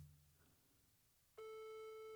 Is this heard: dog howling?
no